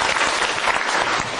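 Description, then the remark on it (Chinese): A burst of audience applause, many hands clapping in a dense, steady patter at an even loudness throughout, with no voices standing out. “OK，讲得好，热烈掌声鼓励一下。”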